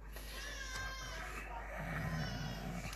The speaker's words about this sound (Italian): poi ci credo che piange il bambino.